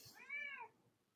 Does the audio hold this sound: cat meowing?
yes